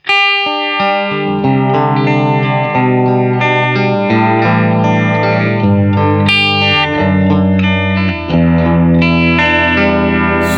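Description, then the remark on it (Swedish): A guitar plays sustained chords and melodic lines through a modulation pedal with its speed knob set around 11 o'clock, a fairly slow, steady sweep giving the tone a gentle rising-and-falling movement. Loud and continuous, with no talking. “Typ, 10, gan, ganska halvlångsamt mm. svep mm. som gör att det blir liksom lite rörelse bara.”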